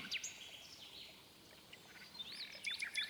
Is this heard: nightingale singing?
yes